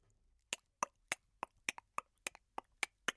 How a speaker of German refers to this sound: Was ist das? ähm, eine Uhr, also ein Wecker. Nein, das ist der Blinker in der Auto. also ein Blinker im Auto.